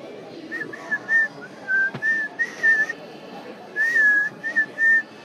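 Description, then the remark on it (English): A person whistles a bright, wandering melody along to hit songs in short phrases with brief pauses, clear over a soft, steady background of music, with one sharp knock partway through. “Going to release uh, me whistling along to hits as an LP that anyone can join,”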